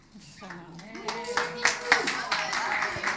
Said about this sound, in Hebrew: מחיאות כפיים לכל מי שקרא מהמגילה, כל הכבוד. יופי. יופי, כל הכבוד לכם, תודה רבה רבה לכל מי שהשתתף